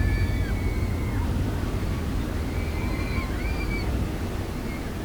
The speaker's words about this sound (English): Uh, the ferry is pulling away. Oh, man, people are falling in the river. Oh, they won't last long in there. The oh, is ice cold. The boat is turning out.